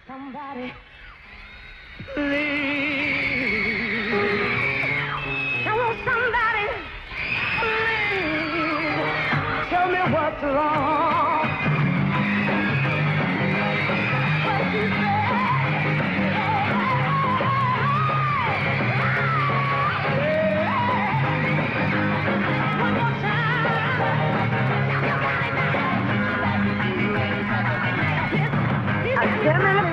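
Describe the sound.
A dense wall of high-pitched screaming from a crowd of female fans at a concert fills the whole stretch, loud and continuous, with a singing voice and music struggling to come through underneath.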